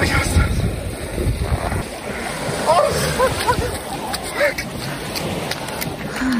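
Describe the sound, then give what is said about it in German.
Steady splashing and churning in cold shallow sea water at a beach as a person jumps up and down, with wind rushing across the microphone and a few short vocal yelps and exclamations about the cold mixed in. “verzweifelt am Strand auf und ab sprang und äh, sich darüber beschwerte, wie kalt das Wasser doch sei.”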